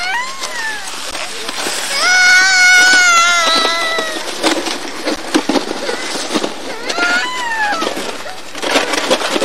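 A child cries in a loud, drawn-out wail that wavers up and down for a few seconds, followed by shorter whimpering bursts over a busy, clattering background.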